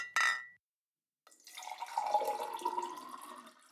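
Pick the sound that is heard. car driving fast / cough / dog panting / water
water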